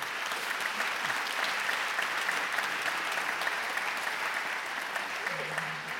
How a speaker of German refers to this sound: Jetzt müssen wir kurz meinem Vater einen Applaus geben, weil mir ist auch kurz die Luft weggeblieben, weil er das so gut erklärt.